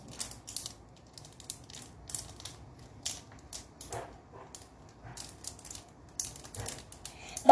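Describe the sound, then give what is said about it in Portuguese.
Irregular bursts of plastic clicking and ratcheting from the gear segments of two Snack Track fidget toys joined into one, being twisted, fairly quiet, ending with a louder snap. “eu vou chamar de engrenagens, né? O barulho das engrenagens.”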